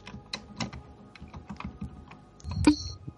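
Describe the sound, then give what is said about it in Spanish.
Rapid, uneven clacking of computer keys being typed on, fairly loud, with a slightly heavier burst of keystrokes near the end and no voices. “Bueno, pues está reventando el teclado, tío. Te escucha el teclado, ¿eh?”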